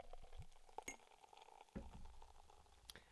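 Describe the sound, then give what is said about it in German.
Fizzing and crackling of beer foaming as it is poured into a glass, with scattered clinks and thumps of the glass, and no one talking. “Oh, der, Scha der schäumt anders.”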